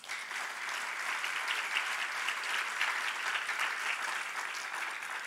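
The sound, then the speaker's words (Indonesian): An audience applauds steadily, a dense, even wash of many hands clapping that holds at a constant level for several seconds without pause or voices. “Mana tepuk tangannya?”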